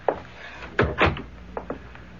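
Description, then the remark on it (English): A library door is pushed shut: a faint click, then a solid double thud as it closes, followed by two lighter latch clicks, with no voices. “Come into the library and shut the door behind you.”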